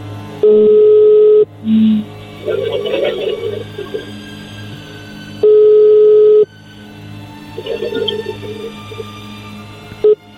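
A phone line rings back twice with steady, loud tones of about a second each, separated by gaps filled with faint line noise and murmuring; a brief short beep sits between the rings.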